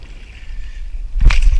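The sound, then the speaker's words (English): Water sloshes and splashes against a kayak as an animal tries to tip it over, a steady watery wash building to a louder surge near the end as the hull rocks. “I would label this video why I'm never getting in a kayak ever to begin with.”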